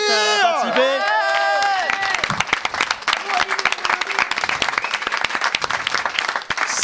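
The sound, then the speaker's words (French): A crowd bursts into loud cheers and whoops, then settles into sustained, dense applause of many hands clapping steadily for several seconds. “On peut l'applaudir”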